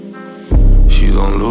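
A song kicks in abruptly after a softer tonal opening, jumping to a loud, bass-heavy mix with bright upper layers that stays full and steady to the end.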